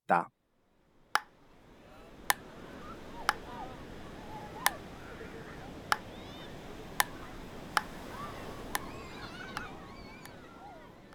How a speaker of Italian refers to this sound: ma questo suona come paddleball in inglese. Esatto, è il tennis da spiaggia, molto bene. E, ehm, in italiano diciamo però più comunemente giocare a racchettoni.